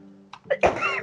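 A single sneeze: a couple of short, breathy intakes build up, then a loud, sharp burst of air that trails off, with no talking during it.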